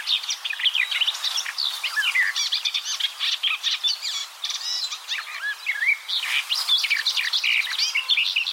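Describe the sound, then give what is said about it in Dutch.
A songbird pours out a fast, babbling, blackbird-like song, a continuous jumble of warbling phrases and chirps, clear with no talking. “Niet zo heel boeiend, maar prachtige, beetje jubelende... snelle, brabbelende, merelachtige zang.”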